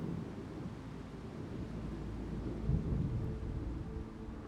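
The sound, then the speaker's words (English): A steady, dense roar of rain fills the scene while low thunder rumbles underneath, swelling briefly louder near the middle before settling back into the constant stormy wash. No voices. “So, as you feel the storm getting even stronger and the wind is blowing harder, you sit there in the meadow, completely unfazed by”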